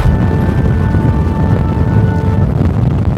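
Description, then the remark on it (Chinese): Loud, steady wind roars and buffets against an old vintage car being driven, a dense low rumble with a faint thin whine running through it for a few seconds. No one speaks. “哎，助理，录一下外面的这个风声。”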